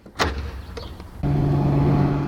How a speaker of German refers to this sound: Wir sehen ein Flugzeug. Es wurde umgebaut. Es hat einen Elektromotor und einen Energiespeicher Wasserstoff an Bord. Jetzt geht die Tür zu.